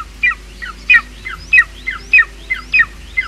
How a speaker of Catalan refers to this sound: Aquest és el crit de l'àguila adulta.